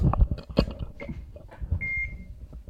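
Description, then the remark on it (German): An electronic chess game gives two high, thin beeps, a short one followed by a longer one, amid clattering and handling noises as a move is made. No one speaks. “Jetzt piept's aber nur.”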